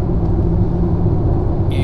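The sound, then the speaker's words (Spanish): A steady, loud low-frequency rumble fills the whole stretch, the engine and road noise of a car being driven, heard from inside; the car has some kilometres on it. A brief high chirp near the end. “Voy conduciendo en un coche que no es el mío.”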